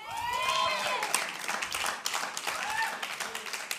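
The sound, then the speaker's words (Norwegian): An audience applauds steadily for about four seconds, a dense wash of clapping mixed with scattered cheers and whoops, holding an even, moderate loudness throughout. “Gi henne en applaus.”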